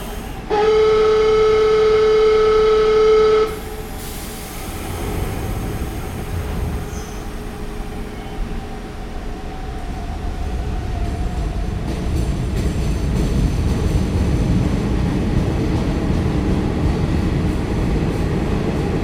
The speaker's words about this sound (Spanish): el subte, el metro en la línea B eh, ha rozado los 82, 83 decibeles y el sonido de cerrar puertas 90, ¿no? Ustedes lo apreciaron. Mientras el fondo se mantiene en 67